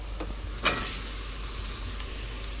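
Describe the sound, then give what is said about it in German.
Steady sizzling of button mushrooms frying in very hot, smoking oil in a pan, with a brief louder crackle early on as more hits the oil, then a constant hiss throughout. No voices. “Und bratet die gut an.”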